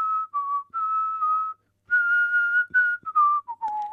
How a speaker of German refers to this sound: Selten pfeifen wir ein Lied von vorne bis hinten. Wir pfeifen Melodiefetzen, variieren sie, spinnen sie weiter, lassen sie in andere Melodien übergehen.